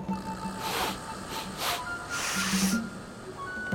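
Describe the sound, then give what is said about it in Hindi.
A jackal sniffing a drum: a handful of short, breathy, hissing inhalations in an uneven sequence, with a faint steady hum underneath and no talking. “सियार फूक फूक कर कदम रखता ढोल के निकट गया उसे सूंघा”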